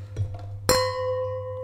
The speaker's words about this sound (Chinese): 刚才大家听到的是两只酒杯碰撞的声音。